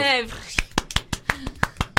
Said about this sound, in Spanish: Aplausos.